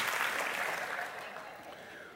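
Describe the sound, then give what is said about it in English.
A church audience claps together in a dense, steady wash of applause, then eases off slightly toward the end. “We're, we're clapping, folks.”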